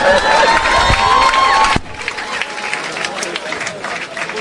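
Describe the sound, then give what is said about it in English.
An audience at a camp breaks into applause for the Russians, with loud cheering and whooping voices, then the cheers drop off abruptly and steady, quieter clapping continues on its own. “Okay, clap for the Russians.”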